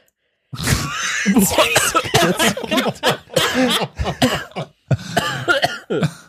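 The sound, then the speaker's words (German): A loud fit of choking coughs after red wine went down the wrong way, harsh and sputtering, with bursts coming in quick succession for several seconds and a brief gasp between them. “Ich kann nicht mehr weitermachen, ich habe Rotwein in der Lunge.”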